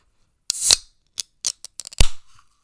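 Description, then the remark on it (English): A candy cane flavored seltzer can cracks open with a sharp hissing burst of fizz, followed by a few small metallic clicks and a dull knock, with no talking. “I don't know if the listeners can hear, but there is a crackle and a fizz.”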